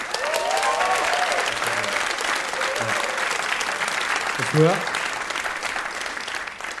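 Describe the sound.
Audience applause fills the whole stretch, a steady, dense patter of many hands clapping at a fairly loud level, with a few voices calling out briefly over it.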